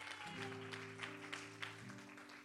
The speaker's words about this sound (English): Come on, that deserves a better hand clap. Somebody who's been forgiven, somebody who's been washed by the blood of Jesus.